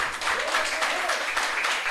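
A church audience applauds steadily to honour a man who helped at their men's retreat. It is a dense, even wash of many hands clapping at a constant, fairly loud level with no pauses, and no one speaking over it.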